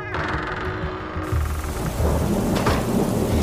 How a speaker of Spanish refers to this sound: La intensa lluvia golpeaba sobre la única ventana de mi habitación, de la misma manera en que la pregunta de aquel extraño viejo golpeaba mi cabeza.